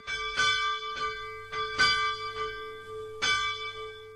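A single church bell, a rare Theophilus bell about 1000 years old, beehive-shaped and 36 cm in diameter, in the tower of the Catholic St. James church in Turndorf, Bavaria, rings in a steady, unhurried series of strikes. Each bright clang leaves a long humming tone that carries between blows. It is heard alone and clear.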